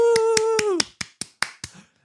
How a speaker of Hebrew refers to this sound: בואו נקבל אותה מחיאות כפיים. וואו!